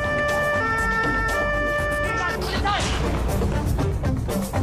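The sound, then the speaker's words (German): A police patrol car's siren wails steadily in the first couple of seconds as it arrives in a residential area, mixed into loud traffic and engine rumble, then gives way to a busy roar of vehicles and clatter. “Zur gleichen Zeit erreicht der Streifenwagen der Polizei das Wohngebiet.”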